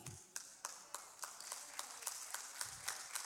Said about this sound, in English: See how low the claps are? Because we can sit under anointed preaching and, and, and critique, evaluate it, lining up with what we think.